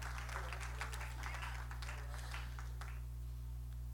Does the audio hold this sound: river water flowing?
no